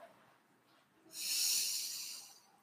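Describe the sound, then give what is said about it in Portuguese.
A deep breath drawn in, a steady airy rush that swells after a quiet moment and lasts about a second and a half, with no talking. “Respirando fundo, puxando o ar.”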